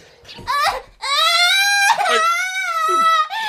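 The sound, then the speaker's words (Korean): A small child who has fallen down cries out loud in long, wavering, high-pitched wails, broken by a couple of short sobbing breaths between them. Nothing else is heard. “아이고, 저, 애가 넘어졌구만. 아이고, 꼬맹이 녀석 조심 좀 하지.”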